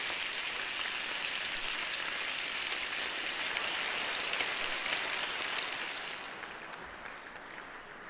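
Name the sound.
bacon frying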